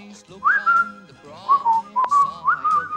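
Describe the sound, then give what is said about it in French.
A person whistles a cheerful melody, clear, with sustained notes that slide and bend between pitches in a lilting rhythm, some low accompaniment underneath. “Et puis, siffle avec moi.”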